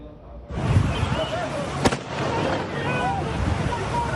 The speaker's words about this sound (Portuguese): Os tiros de fuzil foram disparados por um soldado da PM.